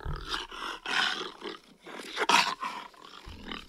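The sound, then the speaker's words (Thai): A jaguar roars in a series of harsh, rasping bursts, loud, the calls pulsing unevenly with a deep rumble underneath and brief gaps between them. “แต่สล็อตเองเนี่ยก็ตกเป็นหนึ่งในเมนูอาหารของเสือจากกัว”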